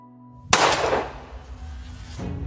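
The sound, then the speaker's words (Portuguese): A single loud gunshot, fired by a woman at her father in a living room during an argument, missing him, cracks out after a moment of quiet hum, its sharp blast fading into a long echoing tail, with a softer rumble rising near the end. “Michelle iniciou uma discussão com o pai e minutos depois ela atirou nele”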